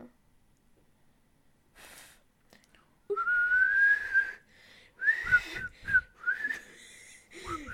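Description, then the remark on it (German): Someone tries and fails to whistle, producing airy blowing and thin, wavering tones that break off and restart several times, with breathy sputters between the faltering attempts. “Wenn ich versuche zu pfeifen, aber es nicht hinkriege.”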